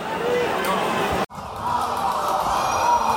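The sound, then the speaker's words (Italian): A large stadium crowd at a football match roars and cheers during a corner kick in the 97th minute, in a dense, continuous wash of noise, steady and loud throughout, broken only by a split-second dropout partway through. “Eh, il resto dello stadio prova in qualche modo ad accendere la situazione, ma eh, non è la stessa cosa.”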